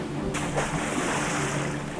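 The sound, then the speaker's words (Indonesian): Ocean waves of the sea during a storm surge and wash continuously at a steady, fairly loud level, with a rushing swell building early on and no voices present. “Lemparkan dia ke laut agar kemarahan Raja Naga Laut mereda.”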